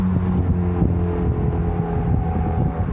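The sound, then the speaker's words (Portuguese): Busy street traffic full of cars and a bus in the United States rumbles steadily, with a deep droning engine hum like an idling bus beneath the constant wash of passing cars. No one speaks. “Nossa, cheio de carro. Ônibus.”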